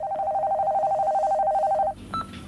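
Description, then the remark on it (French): In a film trailer, a telephone calling a mother rings unanswered with a steady electronic warble for about two seconds, a rapidly trilling mid-pitched tone, then cuts off and is followed by a brief higher beep. “Maman, tu décroches Non, toujours pas.”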